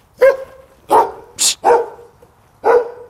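A large white dog barks loudly, five sharp deep barks spaced irregularly over a few seconds, with quiet gaps between them and no voices, as it runs toward a person.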